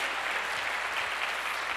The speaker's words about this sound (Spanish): ¿Cuántos dicen amén? Dele fuerte ese aplauso al Señor. Fuerte ese aplauso al que vive por los siglos de los siglos.